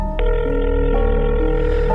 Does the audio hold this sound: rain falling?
no